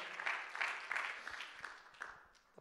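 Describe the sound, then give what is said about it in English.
A church audience claps hands during a sermon to give God praise, a steady, moderately loud patter of many overlapping claps, sustained throughout with a few sharper individual claps standing out. “Clap your hands and give God some praise today”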